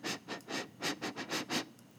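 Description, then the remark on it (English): A dog, Shemaiah, sniffing a big egg in a quick run of about seven short, breathy snuffles, fairly quiet, with no talking. “Well, Shemaiah gave it a little sniff”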